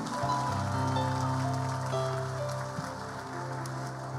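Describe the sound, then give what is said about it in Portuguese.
An audience applauds during a sermon in a steady, dense wash of clapping that lasts the whole clip, with sustained keyboard chords droning underneath and no voices. “Se é para aplaudir, aplaude, irmão.”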